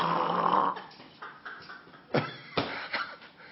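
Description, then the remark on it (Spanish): A person mimics snoring like Chespirito: a long, raspy rumbling breath followed by a few short snorting puffs, with no talking. “Y me arropo a roncar como Chespirito.”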